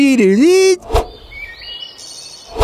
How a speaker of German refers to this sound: Und da ist in Dauerschleife auch diese scheiß Vogelkulisse. Immer am Anfang mit diesem Folien.